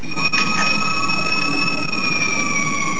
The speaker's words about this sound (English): Oh, that's the siren. That must be outside the meeting room there.